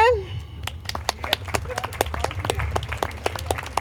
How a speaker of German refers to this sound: Gut, jetzt, äh, das war jetzt Fridays for Future. Applaus bitte.